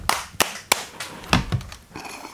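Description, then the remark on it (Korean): Band members clap three times to signal they are ready, three sharp hand claps in quick, slightly uneven succession, with a faint tap or two around them and no talking. “우리 멤버들 준비되셨으면 박수 세 번 쳐주시게 박수 세 번 시작.”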